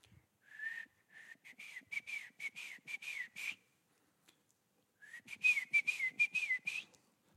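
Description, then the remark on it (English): A grandfather whistles his distinctive signature call, two bright rhythmic phrases of quick pulsing notes separated by a short pause, with no talking. “But this Grandpa …'s whistle sounded like this.”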